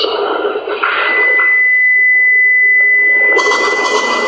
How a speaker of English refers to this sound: What is that? Sounds like a oh, screeching. Um, so when you get this kind of perfect ringtone when you're asking questions, the first thought is okay, it's somehow the equipment reverberating against itself or something, but I've never heard anything